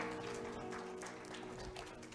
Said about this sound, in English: For those of you who are online, Thank you for worshiping with us. Give them a hand clap of praise right now.